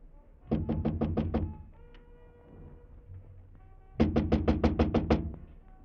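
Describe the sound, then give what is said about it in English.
Loud, rapid knocking on a door at the end of a third-floor hall in two bursts: a quick run of about six raps, a short pause with faint background noise, then another firm run of seven knocks. “Come on, open up”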